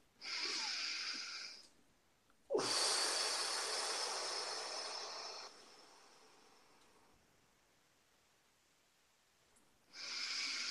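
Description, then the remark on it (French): Deep, slow breathing in a breathing exercise, with no talking: a steady inhale filling the lungs to the maximum, a brief hold, then a long hissing exhale releasing everything, starting forceful and gradually fading, before another breath begins. “Alors, une respiration.”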